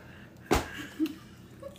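A single sharp smack of a light, playful punch landing on the throat, followed by a brief soft murmur and quiet background noise.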